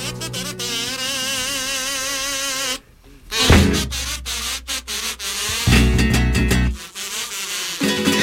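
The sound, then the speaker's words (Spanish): A steady mosquito buzz with a wavering whine that drones on for several seconds, breaking off briefly before returning alongside low thuds and rustling. “Y es que pese a que estamos en otoño, siguen acompañándonos esos mosquitos muchas noches.”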